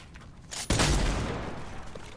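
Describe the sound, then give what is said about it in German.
A loud video game pump shotgun blast fires once through a wall, its sharp crack trailing into a long, rumbling decay, with a brief burst of noise just before it. No one speaks. “Und der okay, Schuss geht durch durch.”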